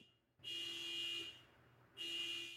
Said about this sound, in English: shout out to the honking horn outside of Jarrett's window